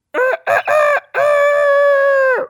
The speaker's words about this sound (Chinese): 对，原来是一只公鸡。